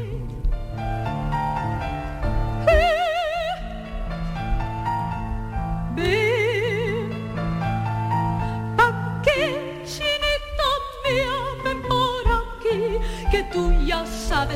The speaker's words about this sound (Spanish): Efectivamente, bueno, es una habanera y las habaneras se pueden parecer